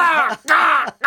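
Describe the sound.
A man's voice mimics a male crow, giving three harsh, nasal caws in quick succession, loud, each drawn out briefly with short gaps between them.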